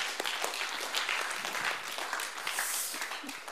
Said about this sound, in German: Richtig cool, dass ihr mutig wart. Können wir mal klatschen.